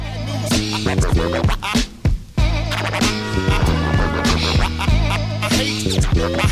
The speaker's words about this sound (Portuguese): A música ouve-se agora.